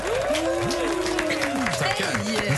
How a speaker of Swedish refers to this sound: Största applåden jag fått i mitt liv, tror jag. Fan vad stort alltså. Vi är rörda.